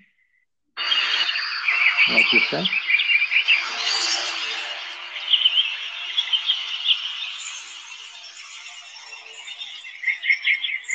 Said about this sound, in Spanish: Escuchamos los pájaros, se va incrementando el sonido.